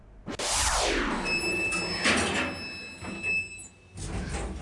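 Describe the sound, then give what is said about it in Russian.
A new elevator with a boy riding in it, from a video blog, rattles and shakes loudly as it moves, a continuous rumbling clatter with a thin, steady mechanical whine above it, briefly easing off near the end before resuming. “Новенький лифт, мальчик едет в лифте, и что мы слышим в этом видеоблоге?”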